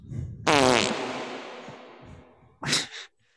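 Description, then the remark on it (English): A loud, sputtering fart bursts out and trails off in a long, hollow echo, as if in a big white room, the void where Squidward goes. A second brief burst of noise follows near the end. “the best part about the fart is there's an echo at the yeah. end.”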